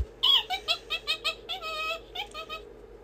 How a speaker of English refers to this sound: The monkey swings from a branch. Monkey.